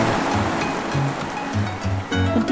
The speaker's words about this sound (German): dieser Regenmusik hören wir einfach eine Weile zu, denn sie ist so laut, dass man nicht mal das eigene Wort versteht.